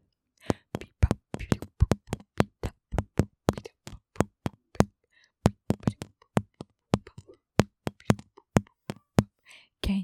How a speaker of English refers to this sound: And so I can play my Twizzler drums with my feet. Not with my feet. I'm playing with my hands. And I've got Twizzler drumsticks.